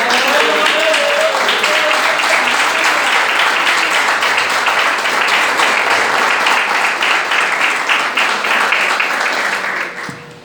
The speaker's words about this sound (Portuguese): Vale uma salva de palmas para Jesus?